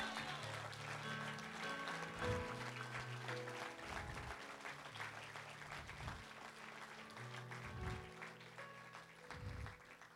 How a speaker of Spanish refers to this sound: Póngase en pie conmigo y denle un aplauso al Rey de Reyes y Señor de Señores.